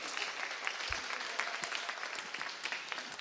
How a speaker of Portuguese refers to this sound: Então é uma ótima piada. Aplausos para mim.